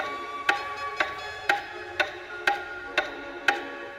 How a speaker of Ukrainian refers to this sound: коли раптом годинник на стіні зацукав гучніше.